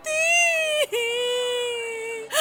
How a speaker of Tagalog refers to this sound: Ah! Ah! Nay! Ah! Ba't kayo umiiyak?